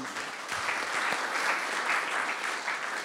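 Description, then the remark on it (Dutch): Steady applause from the audience in the hall, a dense wash of many hands clapping at an even, sustained loudness for the full few seconds, with no voices over it. “Applaus.”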